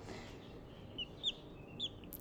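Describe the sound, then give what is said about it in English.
Three or four short, high peeping chirps from a baby chick, spaced irregularly and fairly faint, over a steady low background hum. “There's a baby chirp.”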